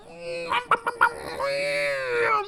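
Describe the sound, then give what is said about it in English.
A saxophone squeaks and honks: four short, sharp bursts in quick succession, then a long, wavering, reedy tone held fairly loud, with no voices. “And I loved having a saxophone squeak.”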